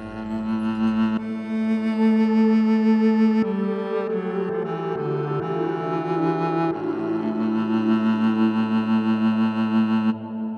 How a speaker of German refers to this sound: Diese Viola da Gamba hier zum Beispiel hat gleich deren fünf im Gepäck, allesamt einstellbar, aber auch mit etwas zu viel Hall zu kämpfen.